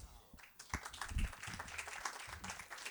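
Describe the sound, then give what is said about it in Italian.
An audience at the Teatro Strada Nuova applauds with a dense, steady patter of many hands clapping at moderate loudness, while voices murmur and call out underneath. “Un applauso sulla fiducia, non ho detto niente.”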